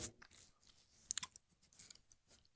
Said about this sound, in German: tippt gerade.